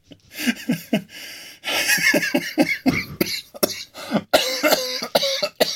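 A loud bout of coughing caused by cigarette smoke from someone smoking: short harsh hacks in a ragged run, a longer rasping stretch in the middle, then more sputtering coughs with gasping breaths between.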